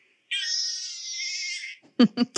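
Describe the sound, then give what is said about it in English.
A baby girl's single drawn-out, wavering cry, recorded on a baby monitor that morning, thin and nasal like a sheep's bleat, lasting over a second and fairly loud, followed by a few short voiced bursts. “she sounds like a sheep.”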